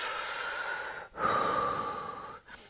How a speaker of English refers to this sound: But I usually take, you know, well I'll close my eyes and I'll take sort of three deep breaths.